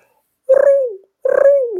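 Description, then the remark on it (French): A person imitates a pigeon with two throaty, cooing hoots, each about half a second long with a falling pitch and a brief pause between them. No talking. “Tu fais juste un pigeon.”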